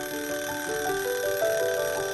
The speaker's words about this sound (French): À peine son dessin fini, petit lapin entend la sonnerie du four qui lui annonce que le gâteau est enfin cuit.